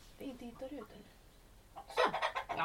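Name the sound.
chickens clucking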